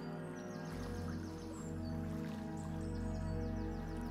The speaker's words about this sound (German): Du riechst diesen Duft von Kiefern und du hörst das Vogelzwitschern. Noch sind viele Vögel an diesem See unterwegs.